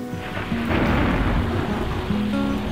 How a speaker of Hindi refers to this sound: अपने दोनों हाथ मैंने उसके सिर के ऊपर रख दिए और घनघोर बारिश शुरू हो गई